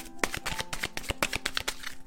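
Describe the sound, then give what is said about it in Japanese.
Oracle cards being shuffled and a single card drawn from a deck for a daily message: a quick run of crisp, papery flicks and slaps in an uneven rhythm, with no one speaking. “カード1枚引いていきます。”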